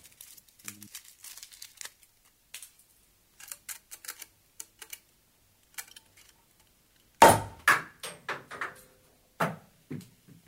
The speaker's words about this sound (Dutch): Ik heb nog een geluidje van een meteoriet voor jullie.